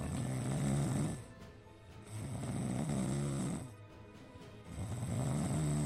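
Loud snoring from football team members asleep on a plane during the return flight to Rennes, in three long, rhythmic breaths, each rumbling snore separated by a brief quieter pause, over a steady hiss of airplane cabin noise.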